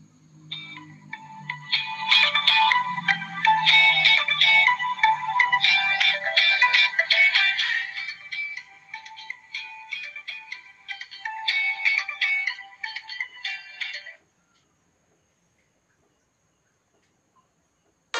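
A bright, chiming instrumental tune of an Eid al-Fitr (Lebaran) holiday song plays steadily for about fourteen seconds, with a soft bass part early on, then cuts off into silence. No one sings or speaks over it.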